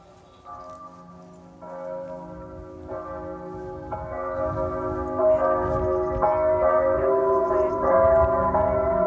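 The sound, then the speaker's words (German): Church bells of a model of the Gedächtniskirche (Memorial Church), turned on with a switch, ring in overlapping, sustained peals, building in loudness as more bells join, their tones layering into a dense, reverberant chime over a low background rumble. “Vielleicht auch zur Gedächtniskirche noch mal ganz kurz äh, ja. den Klang.”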